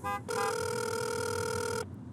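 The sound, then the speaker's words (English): A phone rings on an outgoing call to a mom, made while stuck in Saturday traffic; the call goes to voicemail. One steady, buzzy electronic ringback tone lasting about a second and a half, preceded by a short tone. No one speaks. “That's a tight window on a good day, but with all this Saturday traffic, maybe you should just call the mom.”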